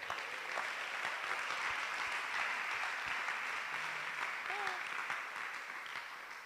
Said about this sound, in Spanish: Qué locura, ¿no? Te quedaste con ganas de dar un aplauso, yo también, dale un aplauso.